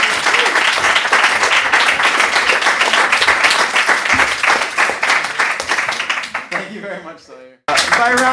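A crowd breaks into steady, dense, loud applause that fades out, followed by a brief silence before another sound starts up.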